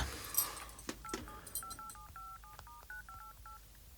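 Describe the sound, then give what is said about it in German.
A rapid series of short, clear keypad tones as a phone number read off a keychain tag is dialed to call a motel in Reno, about a dozen even beeps in quick succession, moderately loud with no talking. “Telefonieren. Die Nummer steht ja hier auf diesem Schlüsselanhänger.”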